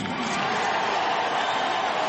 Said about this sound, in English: Joe Crede with a big round of applause here from the White Sox faithful, gathered to watch the number retirement of Mark Buehrle.